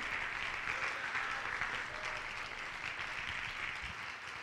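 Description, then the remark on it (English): A crowd claps their hands in a dense, steady wash of applause that holds at an even loudness for the whole stretch, with no voices standing out above it. “Oh, clap your hands if you want to be the nail, if you want to be the nail, if you want to be the nail.”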